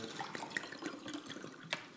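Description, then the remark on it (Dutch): Water splashes and trickles steadily for a couple of seconds, with small bright drips and clinks as liquid fills a glass. No one speaks. “Maar je nog water”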